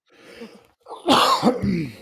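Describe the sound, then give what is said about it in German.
A sneeze: a soft breathy intake, then a sudden loud burst of explosive noise followed by a couple of quick, rougher expulsions, all without any talking. “ja, Gesundheit.”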